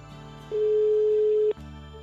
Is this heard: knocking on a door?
no